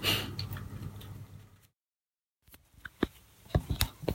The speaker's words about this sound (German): So, der Ofen hat gerade Klick gemacht. Das Lämpchen ist aus. Das heißt, er ist aufgeheizt.